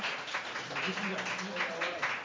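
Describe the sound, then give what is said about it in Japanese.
Scattered audience applause from a modest crowd, clapping to show who wants a better AI to do the work so they can slack off, a steady patter of clapping that neither builds nor fades, with faint murmuring voices underneath. “じゃああのもう全部任せてなんかなんならなんか他のめっちゃうまい経営者の人のデータを入れて混ぜてもっといい AI 作って全力でサボりたいって人拍手お願いします。”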